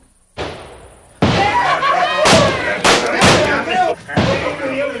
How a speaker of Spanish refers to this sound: Al poco rato se oyeron tiros por allí cerca.